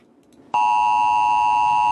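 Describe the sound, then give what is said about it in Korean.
A loud, harsh emergency alert tone from a mobile phone, bringing the Ministry of the Interior and Safety's notice that the Seoul alert was a false alarm, suddenly blares after a quiet moment, holding one steady, piercing pitch without pause to the end. “다시 와갖고 진짜 저 오발령 보기 전까지 저거 울리자마자 심장 멎는 줄 알았는데 심장 멎는 줄 알았어. 안 그래도 긴장해 있었는데 저거 저거 삐삐 하면서 오니까”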